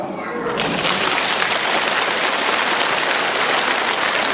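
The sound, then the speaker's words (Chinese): An audience breaks into applause after a brief quiet start, a dense, steady crackle of many hands clapping that stays loud and even to the end, with no talking over it. “这是第一次鼓掌，接下来跟你们说第二次鼓掌。”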